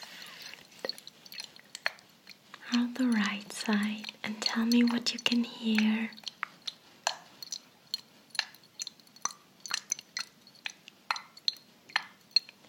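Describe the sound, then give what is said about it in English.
Water drips in a steady, irregular patter of sharp little plinks, quiet. Someone speaks softly partway through, and the drips continue on their own afterward. “Yes, it's water.”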